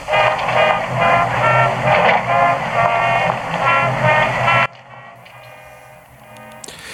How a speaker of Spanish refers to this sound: Este es el sonido de las bandas del Ejército de Salvación, algo que todos los que conocen el mundo ya no solamente anglosajón, sino donde este movimiento evangélico se ha extendido piensan en que en la Navidad eh, oirán sin lugar a dudas